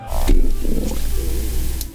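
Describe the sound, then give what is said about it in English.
A loud, amplified human stomach growl, replayed and turned up: deep rumbling with bubbly, gurgling bursts rolling along for about two seconds, with no voices. “That was my stomach growling.”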